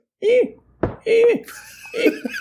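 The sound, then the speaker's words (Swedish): A voice imitates wind whistling through an apartment window at night: a few breathy howls and whooshing tones, rising and falling in short bursts with airy hiss between them. “Apropå blåshål så upplevde jag samma här i lägenheten på Åsgatan här om natten eh, mitt fönster, hur jag än gjorde med det, så det blåste så mycket så att det lät”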